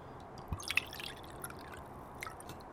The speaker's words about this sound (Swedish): samtidigt som han häller upp ännu en whisky.